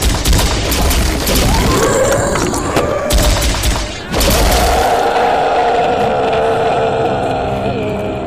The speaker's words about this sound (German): denkt daran, wenn möglich gleich auf die Köpfe zu zielen. Jäger und Wehrberger haben die erste Initiative. Gut gezählt, Gefährten! Jetzt! Feuer frei!